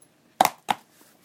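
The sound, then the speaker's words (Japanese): Two sharp crunching snips, a fraction of a second apart, like scissors cutting through a shoe insole, with faint quiet handling noise before and after. “ちょっと今ハサミでねこれソールのこれ中の中敷靴のあの中きをねちょっと切ってるんで”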